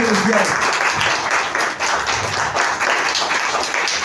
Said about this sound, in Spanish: fuerte aplauso